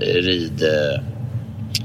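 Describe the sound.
A low, steady engine drone fills a moving van, running continuously beneath a person talking in brief, hesitant phrases.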